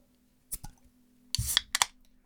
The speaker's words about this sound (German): Nimm mal dein Getränk in die Hand. Du kennst den Drill. Du weißt, wie es ist. Jo. Ja, ich bin ausgebildet. Gut, dann nimm das Getränk ans Mikro und kling, kling, klang, öffnen.